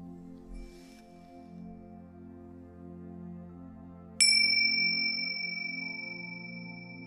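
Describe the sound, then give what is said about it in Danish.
A single bell is struck once, ringing out clearly with a sharp attack and a long, shimmering sustain that slowly fades over a soft, steady low hum. “Om lidt vil du høre lyden af klokken.”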